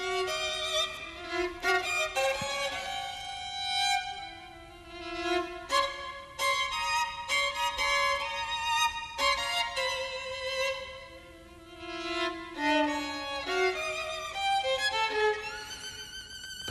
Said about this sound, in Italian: passaggio molto ardui con un sacco di decime, corde doppie per l'intonazione è estremamente difficile questo.